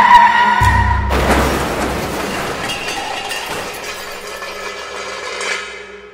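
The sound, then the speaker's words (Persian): A loud crash as a Nissan car brakes, hits a sheep inside a foggy tunnel, spins around once and stops: a low rumbling impact gives way to a burst of shattering glass and clattering debris, then a long ringing, tinkling tail that slowly fades. No voices. “پایش را روی پدال ترمز کوبید و ماشین با گوسفند برخورد کرد و یک دور دور خودش چرخید و ایستاد”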